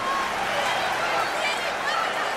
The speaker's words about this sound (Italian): Ehi hey, ragazzi, scommetto che riesco a farle urlare ancora più forte.